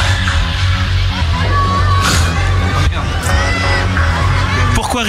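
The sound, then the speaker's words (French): A steady low suspense music bed with sustained tones plays continuously beneath a dense crowd murmur, with occasional shouts and whoops rising above the babble throughout, as poll results are about to be given in a 'Stop ou encore' segment. “Tu sens le public qui, ah a peur hein, du résultat. Hein. J'ai refait le bed, hein, t'as remarqué”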